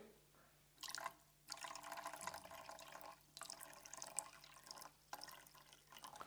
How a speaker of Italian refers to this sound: questo principalmente quando ci sono delle coppette più grandi, quando si mette l'acqua, quando noi versiamo l'acqua a qualcuno da bere, adesso vi faccio l'esempio qua, è bello fare così?